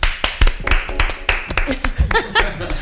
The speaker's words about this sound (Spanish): Por fin va a empezar la tercera temporada de Nadie nos dijo. Un aplauso.